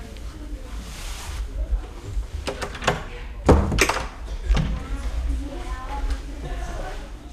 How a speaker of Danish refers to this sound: Vil du hvad, så lukker jeg døren igen.